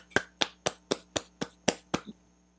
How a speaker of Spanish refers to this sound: Muy bien, muy bien. Un aplauso, un aplauso.